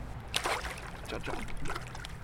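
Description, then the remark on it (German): Water lapping and trickling against a small fishing boat heading out on the Alte Donau, an urbanized backwater of the Danube in a big city, with soft irregular splashes and a steady low rumble underneath, moderately quiet throughout. “Wir fahren auf meinem Boot raus.”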